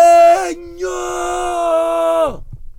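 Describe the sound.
A loud man's yell reenacting a shocked cry at a bad shower: a short burst that breaks off, then a long drawn-out shout of "banho" (shower) held for about two seconds before dropping away.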